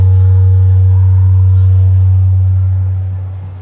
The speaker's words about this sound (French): hier qui ressemblait à ce son qu'on vient d'entendre, ce Larsen. On est très dans cette, euh, on est très dans ce type de son.